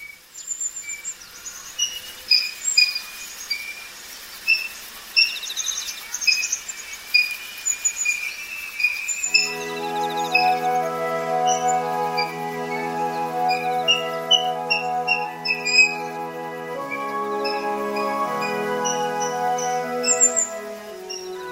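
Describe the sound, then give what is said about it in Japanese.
Water rail calls in a wide wetland at Yoshihara in Kasai, in winter: shrill, scattered high chirps, then a long, steady, harmonic squealing call that holds on for several seconds, with no voices. “姿の見づらいクイナですがこの鳴き声を覚えると意外とあちこちにいることが分かりました葛西の吉原から聞こえてきたクイナの声広大な湿地がクイナの冬の生活を支えていました”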